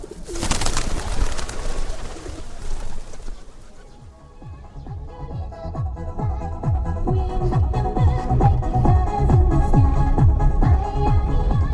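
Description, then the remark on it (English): A flock of pigeons coos steadily at a monastery as visitors feed them seed, their low, throaty calls overlapping in a continuous rhythmic murmur after a brief opening burst of noisy flutter. “Biyamba, our guide and translator, hands us seed to feed the pigeons, an exercise for good karma”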